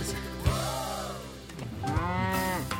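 A cow moos twice, each call long, loud and close, with rising then falling pitch, over a steady low humming tone in the background.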